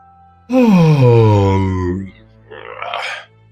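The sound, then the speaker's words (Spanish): A voice acts out the Mock Turtle yawning: a long, loud yawn, its pitch sliding down into a groaning drawl, followed by a softer breathy exhale. No words are spoken. “Aquí la falsa tortuga bostezó y cerró los ojos.”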